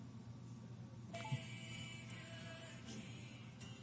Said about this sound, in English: It's my timer. That's some nice music is playing. I can stop that though.